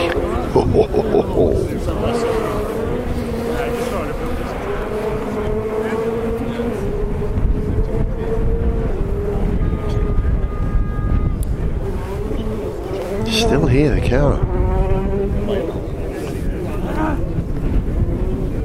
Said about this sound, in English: You should see this, even though the wind is blowing quite hard from left to right, probably hear it on your left ear.